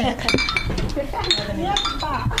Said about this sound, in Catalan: Sí, fem un xin-xin. Xin-xin, Molt bé, molt bé.